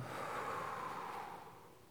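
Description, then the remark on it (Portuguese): A long, breathy exhale after a deep breath, blown out through the lips, steady for most of its length before trailing off more softly at the end. No one speaks. “Solte esse ar assoprando.”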